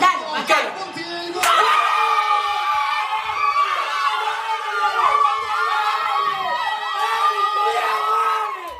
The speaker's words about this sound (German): Das sind Jubelschreie aus Argentinien.